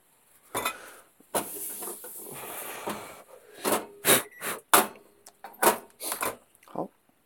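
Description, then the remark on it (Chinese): A little oil is poured into a hot pan while cooking, bringing a rough, hissing sizzle, followed by a string of sharp metallic clinks and clatters from the pan and utensils at an uneven pace. “好，现在是看到这个热锅，然后，OK，倒油。”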